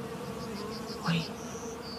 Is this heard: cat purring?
no